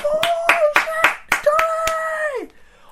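Crowd clapping in a steady rhythm, about seven sharp claps, over a loud held tone that slides down in pitch and fades just before the end.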